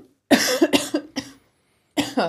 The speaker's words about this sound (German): Jetzt muss ich kurz husten.